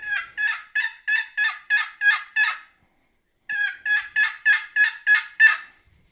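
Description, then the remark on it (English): Excited wild turkey hen yelps, imitated on a turkey call, come in two fast runs of seven or eight sharp, raspy notes each, separated by a brief pause. They sound fairly loud, with no talking. “four or five faster yelps. That's kind of an excited hen call.”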